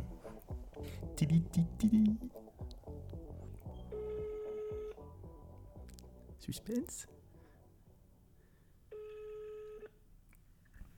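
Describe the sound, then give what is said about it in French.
A phone rings out on speakerphone: two long, steady, buzzy ringback tones separated by a pause, after a man speaks briefly at the start. The call is made from a cordless phone. “Je mets le haut-parleur. Ça sonne.”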